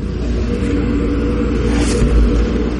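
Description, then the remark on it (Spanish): A car engine rumbles steadily with a deep low drone as the car drives into a village, swelling briefly near the end as it pulls up beside a house and settles. No voices. “El coche se para junto a una casa.”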